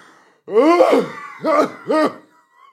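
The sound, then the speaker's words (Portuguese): A voice imitates a woman's deep, hoarse, rasping cough, likened to a lion's cough: one long drawn-out bark followed by two shorter, rough coughs in quick succession, fairly loud. “com uma tosse, com uma tosse de, de leão. Mesmo tipo, estão a ver aquelas tosses?”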